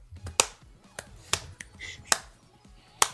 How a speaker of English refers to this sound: I am the very embodiment of the Citizen Kane angry clapping scene. You're welcome.